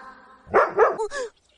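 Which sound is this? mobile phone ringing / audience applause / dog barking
dog barking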